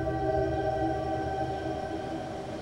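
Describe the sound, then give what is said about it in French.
A train rolls steadily along the track beside the sea at night, a continuous low rumble with a sustained, droning mechanical hum and faint whining tones layered on top, loud and unbroken throughout. “10 heures le train longe la mer.”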